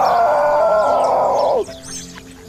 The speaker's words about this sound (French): Le coq Donokoro trouvait que le canard était vraiment laid. En l'apercevant, il lançait un cocorico flamboyant.